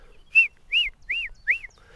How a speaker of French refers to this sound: Non, là, c'est une grive musicienne qui chante.